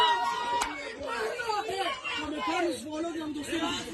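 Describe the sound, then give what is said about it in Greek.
A crowd of at least 20 children shouting and cheering together, urging on a violent fight at school, overlapping excited voices forming a steady babble with no single speaker standing out, sustained for the whole stretch. “Ακούγονται επεφημίε, τι ενθαρρύνουν για να συνεχίσουν.”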